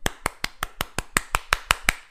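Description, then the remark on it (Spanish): A single person claps hands in a quick, steady rhythm, about eleven sharp claps that grow a little louder toward the end, with no talking. “aplausos, aplausos para ustedes porque van por muy buen camino,”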